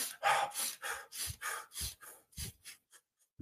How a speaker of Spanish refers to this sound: Le llaman la respiración de fuego los yogis estás en yoga y estás... Y puedes estar desnudo en la nieve y entrar en calor.